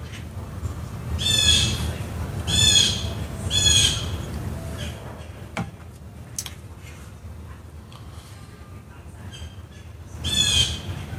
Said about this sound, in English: Those birds are losing it up there. Wow, they're really nuts.